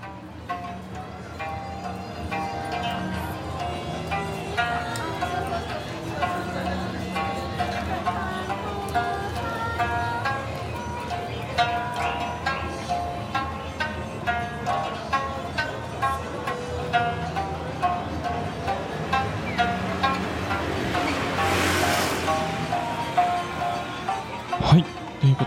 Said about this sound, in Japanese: こちらは沖縄民謡の演奏とともに、少しね、車の音とかも聞こえましたけど、これは野外ですかね。はい、そうですね。あのー、まさしく国際通りです。国際通りなんですね、これはね。そうなんですね。はい、有名な国際通りですけどもね。うんうん、あのー、夜かな、あのー、何気なくこう歩いてたら聞こえてきまして